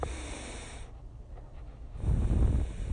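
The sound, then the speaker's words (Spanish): A slow, deliberate breath drawn in, a short pause, then a fuller, louder exhale pushed out, with no talking. “Es como una respiración. Respiras.”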